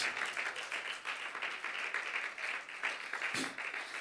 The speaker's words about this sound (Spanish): Brindémosle gloria al Todopoderoso. Brindémosle un aplauso al que vive por los siglos de los siglos.